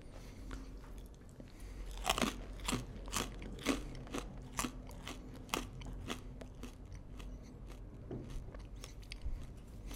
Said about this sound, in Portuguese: É Mas... É um snack legal, né? De, de é um mastigar assim, de comer com cerveja e é. tal, no happy hour.